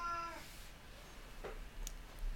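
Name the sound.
cat meowing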